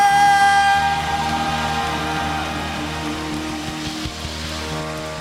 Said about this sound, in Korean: 믿으시는 만큼 주님께 영광과 감사의 박수